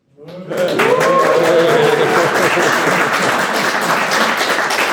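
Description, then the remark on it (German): A live audience in the Störtebecker Abenteuerreise studio bursts into sustained applause, dense clapping at a steady loud level, with a brief vocal cheer or voice rising over it near the start. “Wir nehmen heute hier im Störtebecker Abenteuerreise Studio auch auf und äh, wir haben sogar auch Live-Publikum.”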